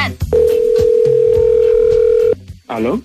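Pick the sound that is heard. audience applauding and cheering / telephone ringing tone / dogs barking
telephone ringing tone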